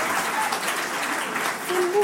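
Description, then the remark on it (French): An audience breaks into steady applause for a 15-year-old student in the final year of high school, a dense, crackling wash of many hands clapping at an even loudness throughout, with a faint voice surfacing briefly near the end. “Attends, en terminale 15 ans Waouh Même soit coup applaudir.”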